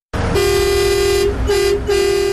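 A loud truck horn blares in three blasts: one long sustained honk, then two shorter ones in quick succession, with a low engine rumble underneath.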